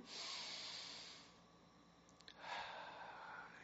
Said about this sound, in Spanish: Para ello os, invito a que tomando una profunda respiración